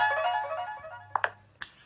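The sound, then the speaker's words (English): A phone's text-alert chime plays a bright, tonal melody, followed by a couple of short blips and a final beep, clear over a low steady hum. “So I get these text messages coming in on here.”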